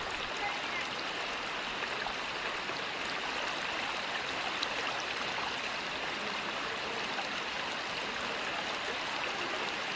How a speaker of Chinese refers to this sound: 这边会听到的录音呢，那就是清溪川其中一段。好，那现在这一段的水流呢，它其实是比较浅的，所以两边来来往往的人其实数量也不少。